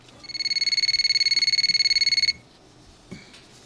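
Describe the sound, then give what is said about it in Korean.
A telephone ringback signal as a phone call is placed: a fast, steady electronic trill at a high pitch lasting about two seconds, then it cuts off, leaving quiet with a single soft click. “신호가 가기 시작했고 제 가슴은 더 떨려왔습니다.”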